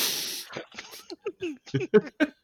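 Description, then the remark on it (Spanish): A single sharp, breathy sneeze bursts out at the start, then a person begins talking right after. “salud.”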